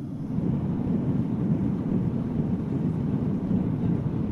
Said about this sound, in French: Ce n'est pas le bruit d'un avion, c'est le bruit d'une forge.